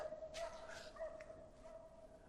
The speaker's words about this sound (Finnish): Ja tuolla haukkuu joku koira taustalla.